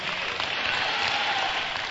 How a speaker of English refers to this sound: Clap for Jesus and say a big amen.